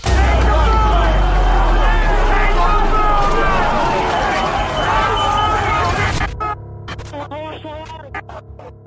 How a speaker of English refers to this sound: As we know, of course, this peace won't last long. This crowd outside the east wing of the Capitol will soon overwhelm the police barrier.